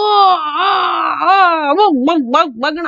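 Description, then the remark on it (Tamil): A voice imitates the desperate, drawn-out wail of a man who has lost all hope and is about to die, holding a long strained cry before breaking into wavering, sobbing pulses that rise and fall, loud. “அலறான் எல்லா நம்பிக்கையும் இழந்து சாக போறவனோட ஓல குரல் அப்படிங்கிறத பூங்குழலி புரிஞ்சுக்கிறா”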